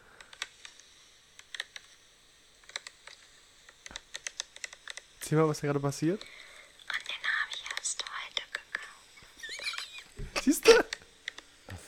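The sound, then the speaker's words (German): Crisp scratches and clicks of a woman's fingernails on the plastic packaging of two Christmas baubles come in quick irregular bursts, with a quiet voice speaking briefly in between. “Die Dame hat eine Verpackung, eine Verpackung in der Hand von zwei, zwei Weihnachtskugeln und macht mit ihren Nägeln auf der Packung.”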